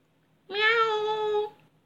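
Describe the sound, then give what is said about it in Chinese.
A black cat gives a single drawn-out meow lasting about a second, holding a fairly steady, clear pitch before trailing off, with nothing else audible around it. “有一只黑猫跑过去了，会不会发生什么灾难呢？”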